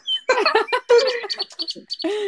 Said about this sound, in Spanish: siento que aquí suenan pajaritos así. Ahí se escuchan.